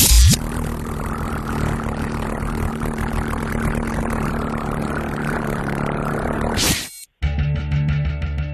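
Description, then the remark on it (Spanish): Helicopter rotor blades spin in a loud, steady drone with a low throbbing hum for about seven seconds, then it cuts off abruptly into a quieter, thinner noise. “son las hélices de un helicóptero.”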